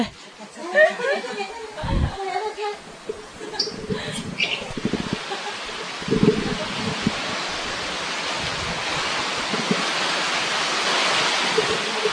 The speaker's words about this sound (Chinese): 虽然说我们现在是远在屏东这样子，然后现在刚才好像外面的下雨声又开始大了起来这样子。好，请听众，呃，以前都是点播一段音乐给大家欣赏，那我们现在点播一段外面的风雨交加之声。